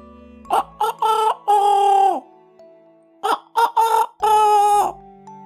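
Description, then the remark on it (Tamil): A rooster perched in a tree crows twice in a row in the morning in the town of Madikeri, each a loud cock-a-doodle-doo of short choppy notes ending in a long drawn-out final call, separated by a brief quiet pause. “ஒரு நாள் காலையில அந்த ஊர்ல சேவல் ஒன்று மரத்து மேலே உக்காந்து பல தடவை”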